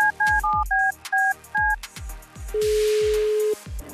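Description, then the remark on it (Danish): A quick run of paired touch-tone beeps from a phone keypad, several short dialing tones in succession, followed by a single longer steady tone, all over a low rhythmic thumping beat. “Jeg tænker, vi bare ringer til vedkommende med det samme.”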